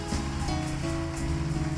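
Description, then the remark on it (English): A church audience gives a standing ovation and clap offering to welcome a reverend: a dense, steady roar of applause that never lets up, with sustained musical tones humming beneath the clapping. “Somebody, let us, with a standing ovation and a clap offering, welcome our daddy”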